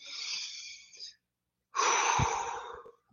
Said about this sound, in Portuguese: Pedi para vocês fechar os olhos aí, então, fecha os olhos aí, faz uma respiração bem profunda.